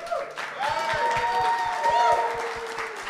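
A crowd applauds steadily with dense, continuous clapping, joined by a few whoops and cheering voices rising above the clatter throughout, as a guest is welcomed onto the stage.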